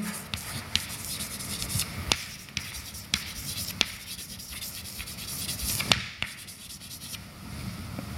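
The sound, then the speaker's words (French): A pen scratches steadily across paper as the name of colleague Mohan Ganeselingham is written by hand during a lecture, with soft continuous rubbing broken by sharp little taps and clicks every second or so. Nobody speaks. “Peut-être que je devrais écrire son nom, parce qu'il est quelqu'un important dans ma vie.”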